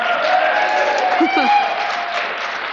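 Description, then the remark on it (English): A steady wash of audience applause at a library evening event, thanking I Can Has Cheezburger for the burgers, fills the whole stretch, dense and continuous, with some murmuring voices and a faint whoop mixed into the clapping. “So if you enjoyed one of those, give them a round of applause.”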